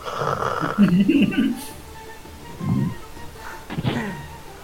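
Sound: person imitating snoring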